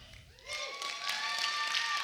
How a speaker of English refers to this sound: Uh, I like your pastor. Can you give him a big clap?